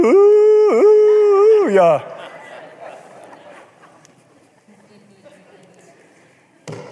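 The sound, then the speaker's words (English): A person imitates a coyote, letting out a loud, wavering howl for about two seconds with a couple of quick pitch dips, followed by quiet murmuring and a sharp knock at the end. “I got to laughing because then I got to thinking, it starts to sound like what happens to my cows when a coyote gets in the pasture.”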